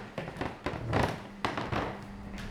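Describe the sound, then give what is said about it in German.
Antique wooden floorboards creak and knock under slow footsteps indoors as people walk around: several dull thuds mixed with drawn-out groaning creaks, fairly quiet, with no one talking. “was man hier eben auch äh, immer hört, ist der schöne Holzboden, äh, der antike Holzboden”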